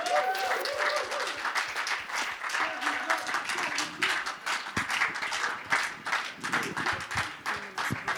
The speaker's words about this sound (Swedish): Yes. Stor applåd.